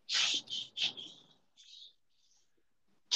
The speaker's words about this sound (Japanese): 嘘なんかガシャガシャ作業してる音がすごいなッ。キでも切ってる。あ、ちょっと机拭いてた。